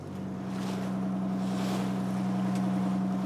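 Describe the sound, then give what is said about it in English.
A boat's engine drones steadily, a constant low hum with a sustained tone, mixed with wind and the wash of water as it motors across a lake, in the middle of the lake halfway between Tipperary and County Clare. “She's been all around the world, this boat.”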